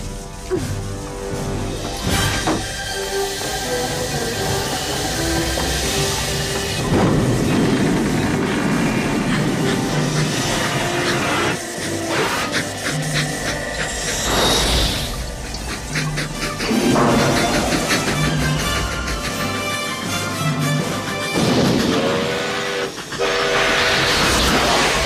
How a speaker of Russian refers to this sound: Док его создал, собрал из э, деталей разбившегося паровоза. Заканчивается вся трилогия тем, что этот паровоз так вот тебе влетает э, в камеру.